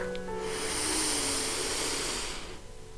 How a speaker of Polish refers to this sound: Kiedy będziesz gotowa, weź kilka głębokich i odświeżających oddechów. Wdech